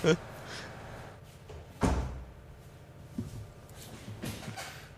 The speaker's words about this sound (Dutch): Ik ga even de deur dicht doen.